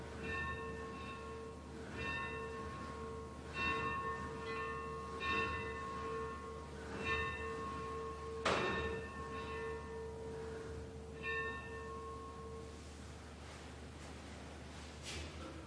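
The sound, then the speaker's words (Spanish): A chapel bell, rung by a monk, tolls in a slow, steady rhythm, each stroke ringing out with lingering, resonant overtones in a reverberant space; a single sharp knock cuts in partway through. “En la capilla, Christoph toca la campana.”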